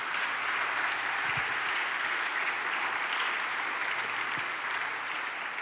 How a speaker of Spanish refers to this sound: Dale otro aplauso fuerte al Señor, por favor.